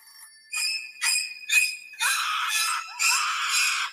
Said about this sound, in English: Ooh, great ringtone. I love it. Okay, I'm going to answer.